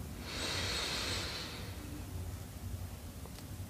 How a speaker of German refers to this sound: Wir nehmen den dritten tiefen Atemzug und atmen ein.